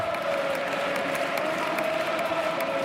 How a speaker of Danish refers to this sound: Her er der altså en øh, lille leg gang, hvor at, øh, Real Madrids Ultras, som står bag Mallorcas mål, råber én ting, og så råber hele resten af stadion med. Og det, der altså bliver råbt, det er ikke særlig pænt ting.